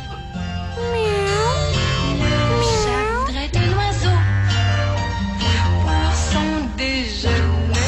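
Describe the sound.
A voice imitates a cat with a series of drawn-out, loud meows whose pitch swoops up and down, sung over a steady, dense musical backing.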